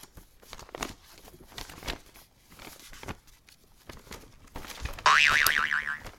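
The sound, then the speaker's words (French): A paper road map is folded up with a run of crinkly rustles and crisp creases, followed near the end by a loud, wobbling boing sound effect. “Une carte qu'on replie une carte routière.”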